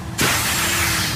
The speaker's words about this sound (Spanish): Cuando tu hijo pincha la rueda de tu coche nuevo, suena así.